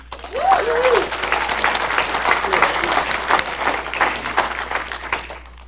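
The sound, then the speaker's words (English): A crowd breaks into sustained applause for the Connect team members who have brought up buckets, dense clapping filling the space from start to finish, with a brief rising whoop or cheer near the beginning. “Give it up for these guys.”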